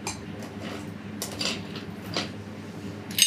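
Ice cubes clink into a glass as it is filled with ice before making a drink, a few separate knocks spread out, ending with a brighter ringing clink. No one speaks over the sound.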